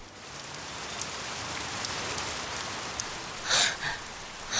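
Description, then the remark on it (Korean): A sudden heavy rain shower pours down on a road from Wangsimni to Hoeeom-dong in a dense, steady hiss, with droplets pattering on surfaces and a brief louder gust of splashing near the end. No voices. “왕십리에서 회엄동으로 넘어가는 도로에서 소나기를 만났다.”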